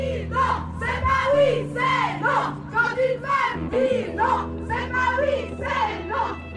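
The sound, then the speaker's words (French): A crowd chants slogans in unison at the 1 May workers' march in Lausanne, with women at the head of the procession carrying large purple banners; loud rhythmic shouted phrases rise and fall in bursts, with a steady low rumble running underneath throughout. “Ces slogans que vous venez d'entendre et tous ceux qui vont suivre, je les ai enregistrés lors du 1er mai à Lausanne.”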